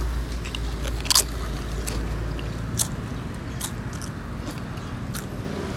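Crunching of lightly salted potato chips being chewed in a taste test comparing six lightly salted varieties, with sharp crackly bites scattered irregularly over a low steady background hum; no one speaks.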